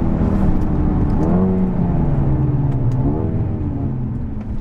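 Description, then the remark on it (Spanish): A Mercedes A35 AMG sports car's engine drones loudly and steadily as it is driven hard, its pitch sweeping up and down as the driver works through the gears, with a constant rumble of road and wind noise underneath. “apenas si noto la diferencia en el tacto del pedal de freno, no se hunde muchísimo más, aguantan muy, muy, muy bien el sobreesfuerzo que tienen que hacer para la conducción que ahora mismo le estoy proporcionando al coche.”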